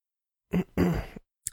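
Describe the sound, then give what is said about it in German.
Someone clears their throat in two short, rough bursts, the second longer than the first, followed by a faint click and then quiet. “Räuspern und Stille.”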